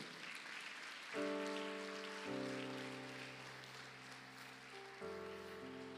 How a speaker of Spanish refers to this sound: No, la Biblia dice, jóvenes y viejos, dele palmas fuerte al Rey de la Gloria.